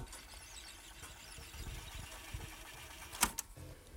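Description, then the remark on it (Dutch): An old cassette tape whirs as it rewinds in a player, a steady mechanical hum with rattling motor noise, ending in a couple of sharp clicks as the mechanism stops. “is nog een goed oud cassettebandje.”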